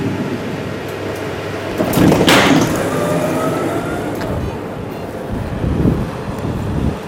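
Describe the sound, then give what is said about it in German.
Steady wind roars across the microphone in Ulrichen, in the Goms, a broad rushing noise with a stronger gust swelling around two seconds in and another lesser surge near the end. “Und der Wind, der ist immer noch da.”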